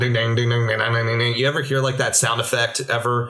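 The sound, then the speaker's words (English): A voice mimics a dial-up modem making its phone call to connect a computer to the internet, with a rapid run of sung, tone-like beeps, fairly loud. A short spoken question follows at the end. “That sound effect is the sound of the modem making its phone call to call the internet to connect to your computer.”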